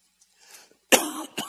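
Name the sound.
coughing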